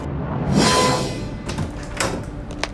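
In the morning, a door to a roof swings open with a soft rushing swish, followed by a few sharp clicks and knocks of the latch and frame, moderately loud, with no voices.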